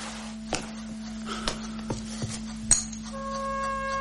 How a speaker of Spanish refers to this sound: Se sirve una copa de licor y le da un trago.